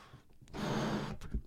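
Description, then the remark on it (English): A single steady, breathy rush of air as a person blows up a balloon by mouth, the air rubbing in against the balloon's pressure, lasting under a second, fairly loud, with no talking and no voice vibration. “So, one of the things you'll observe is that you hear the friction sound of the air going into the balloon against air pressure.”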